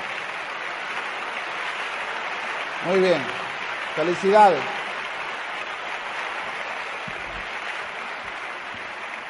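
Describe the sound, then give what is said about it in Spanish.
Sustained audience applause at a seminar for the first-time attendees who stand up, a steady dense wash of clapping that carries through the whole stretch, with a man's voice briefly speaking over it partway through. “Dele un aplauso.”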